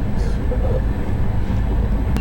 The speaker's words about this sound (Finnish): junan ääni on tasainen taustalla, niin kuuntelijat voi niinku kuunnella nukkumaan mennessä tätä.